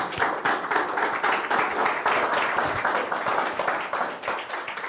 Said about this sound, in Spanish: Dese un aplauso a usted mismo, por favor.